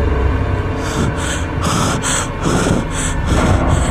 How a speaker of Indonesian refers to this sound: merasakan teramat sesak di danau. Nafasku kali ini mulai terengah-engah.